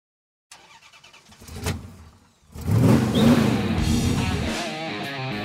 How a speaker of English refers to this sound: Gentlemen, start your engines.